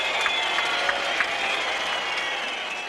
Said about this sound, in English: And the crowd reacts.